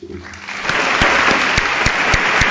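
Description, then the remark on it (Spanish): A crowd at a Semana Santa (Holy Week) event of the cofradías in Jaén, Spain, bursts into steady applause, a dense wash of clapping that builds quickly after a brief murmur and holds loud and even, with a few sharp individual claps standing out. “Por ello, agradecer y pedir un gran aplauso también”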